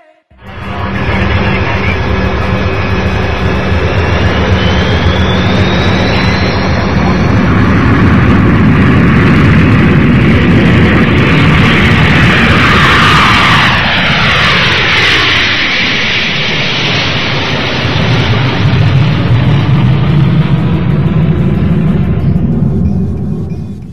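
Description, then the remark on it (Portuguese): A loud, steady airplane engine roar fills the whole stretch, with a broad rumbling drone and whining tones that shift and sweep as the aircraft passes through its flight to Kraków, Poland. “eu vou pegar um avião aqui, vou dar um pulinho na Cracóvia e daqui a pouco eu volto, tá?”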